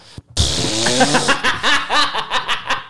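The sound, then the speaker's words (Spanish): A voice imitates a shameless fart let out in front of a partner, with a long, buzzy, sputtering raspberry that breaks into rapid wavering pulses, loud and wet-sounding, with no other talk over it. “Pero ya descarado de esos pedos que te tiras en pareja, que es como...”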